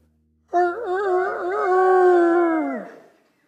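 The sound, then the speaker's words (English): A single drawn-out vocal imitation of a rooster's crow voiced by a group of helpers, loud, holding a wavering tone for about two seconds before dropping off at the end. “all my helpers out there that let me hear you one more time with the rooster's crow.”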